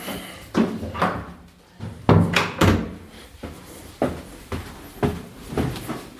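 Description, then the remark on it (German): A refrigerator door, with beer inside, is opened amid a run of soft thuds and knocks, with a few sharper clunks and rattles spaced irregularly over several seconds. Nobody speaks. “erste Blick geht immer in den Kühlschrank.”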